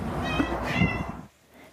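A domestic cat meows, a drawn-out, wavering cry lasting about a second, then cuts off into near silence.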